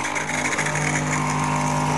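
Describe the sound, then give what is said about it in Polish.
An espresso machine, started by turning a knob, dispensing boiling water into a glass from its milk-frothing nozzle: a steady, loud pump drone with a low hum and a rushing hiss that holds evenly throughout, with no talking. “Teraz leje mi się wrzątek. E, taki dźwięk wydaje ekspres”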